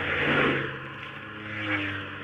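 A car engine hums past at moderate volume, swelling briefly near the start and again toward the end, with a steady low drone and no voices.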